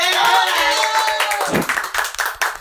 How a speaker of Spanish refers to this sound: Espero que el público esté aplaudiendo. Sí, escucho, escucho los aplausos